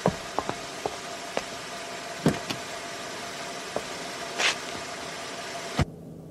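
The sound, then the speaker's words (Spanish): A car engine idles with a steady low rumble, scattered small clicks and a brief whirring burst over it, then a car door shuts with a solid thud near the end. “Rápido, de la vuelta y suba al carro.”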